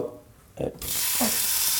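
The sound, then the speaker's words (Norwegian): A steak hits a hot frying pan and bursts into a loud, steady sizzle, a bright crackling hiss that holds for over a second after a brief clatter. “Lyden av biff.”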